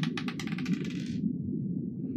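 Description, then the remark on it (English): Dice clatter and tumble across a hard tabletop in a quick burst of clicking hits, a roll made with disadvantage, then settle and go quiet over a steady low room hum. No one speaks. “Oh, wait, no, I got a roll right. disadvantage.”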